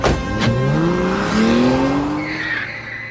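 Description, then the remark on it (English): A car skids loudly to a stop outside the gates, its tires screeching over a roaring engine for about three seconds, with a high squeal rising toward the end as it comes to a halt. “As soon as we got outside the gates, a car screeched to a stop in front of us.”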